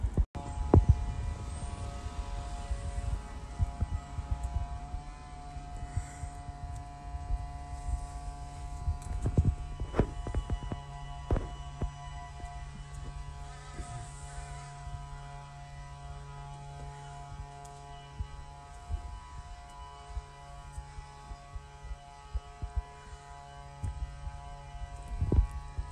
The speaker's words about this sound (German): Ich hoffe, man hört das. Das ist der Laubbläser vom Nachbarn. Eigentlich hätte ich die letzten zwei Stunden im Studio sitzen müssen. Geht nicht. Man hört das die ganze Zeit.